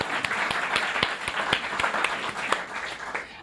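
An audience at a live storytelling event in a theater claps steadily, dense overlapping applause with a few sharper individual claps standing out, sustained at an even level before tapering off at the very end.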